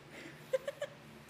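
A cat lets out three short, high mews in quick succession, fairly faint against a quiet background hum, with a brief click right at the end.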